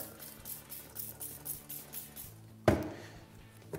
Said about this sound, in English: Silicon time. Squirt him in our internal corners just like so. All we use is a smoothing agent, spray it down.